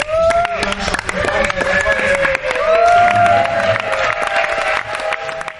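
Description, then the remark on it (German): The French women's torball team cheers loudly and continuously after winning the 2018 International Nations Cup final 4 to 2 over Germany, with high excited shouts and whoops rising over sharp claps and a dense, bustling crowd noise. “Der Jubel bei den Französinnen hörbar groß nach diesem 4 zu 2 Finalsieg über Deutschland.”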